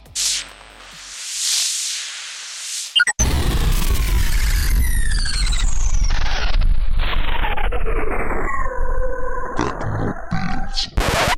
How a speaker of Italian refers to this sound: ma adesso mettiamo la siglas.